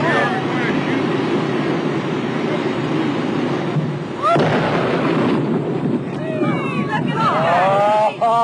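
A sudden heavy dynamite blast, set off to blow up a beached whale with about 75 bystanders moved back a quarter of a mile, cuts through a steady roar, followed by a long rumbling wash of noise as chunks of whale blubber fall, with high wavering cries rising near the end.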